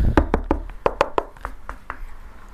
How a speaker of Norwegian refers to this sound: Du hører på slutten her at jeg banker i veggen, sånn, for det er hult der.